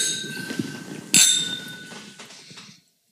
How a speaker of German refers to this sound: Man merkt, diesmal braucht das Anstoßen länger als sonst. Ja. Es gibt mehr Kombinationen.